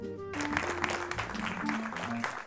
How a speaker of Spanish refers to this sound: Muchas gracias por los aplausos.